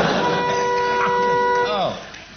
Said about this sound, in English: I buzzed that because I wanted to know why I've still got this boring old buzzer when you've got funny ones.